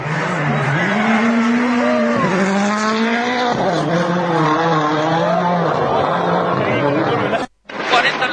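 A rally car engine roars from inside the car, its pitch climbing and dropping repeatedly as it shifts through gears. The sound breaks off for an instant near the end.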